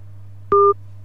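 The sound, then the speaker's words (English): A phone line cuts out with a single short electronic beep of two steady tones, about a fifth of a second long, over a constant low hum, then the line goes quiet. “Oh, I think we've lost him. I think we've lost him.”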